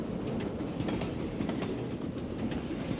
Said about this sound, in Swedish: Regeringen har organiserat en privat tågtransport från hamnen. Gruppen stiger ombord på tåget som tar dem till Mexico City.